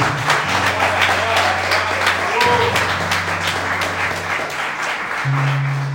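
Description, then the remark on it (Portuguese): A church audience applauds for Jesus steadily for several seconds, a dense, continuous patter of many hands, while sustained low keyboard chords hold underneath and shift pitch a couple of times. “Se é para Jesus, aplaude”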